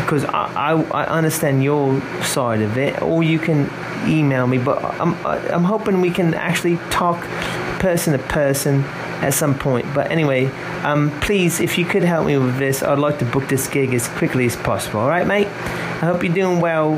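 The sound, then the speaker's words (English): An electric fan runs steadily throughout as a low, constant whir underneath a man speaking continuously, the hum staying faint beneath his voice. “and uh, sorry about the fan. It's just really hot where I”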